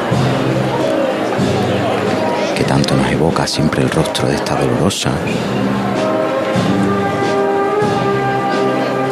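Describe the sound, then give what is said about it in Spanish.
A brass band plays a slow, solemn Holy Week processional march steadily in the background while a man narrates over it, with crowd noise and a few sharp percussive knocks midway. “Qué bonita suena esta marcha,”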